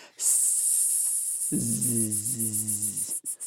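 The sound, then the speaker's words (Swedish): A voice mimics a cricket with a loud, sustained hissing buzz, then adds a droning hum underneath that pulses rapidly for a couple of seconds before breaking off. “Men han skrev ljudet om syrsor inte om snarkning. Ja, men det kan jag köpa. Att syrsor skulle låta”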